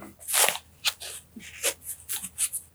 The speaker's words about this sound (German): Ich kratze mich am Ohr, ja. Ja, er kratzt sich am Ohr, er überlegt